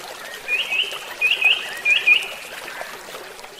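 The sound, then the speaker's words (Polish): Outdoor ambience on the overgrown, green bank of the Vistula river, with a steady soft wash of background noise, over which a bird sings three short bright chirping phrases; no one speaks. “Tutaj szczególnie, gdzie jesteśmy nad Wisłą”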